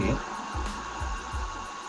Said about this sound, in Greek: Και Τώρα, κάτι ακούγεται και κάτι φυσάει. Τι, τι έχεις δίπλα και φυσάει. Βγάλω αυτό το ανεμιστηράκι.